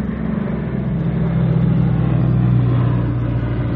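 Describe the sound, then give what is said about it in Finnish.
An airplane passes overhead with a steady, loud engine drone, a low rumbling hum whose pitch slowly shifts as it goes by. No one speaks. “lentokone männe.”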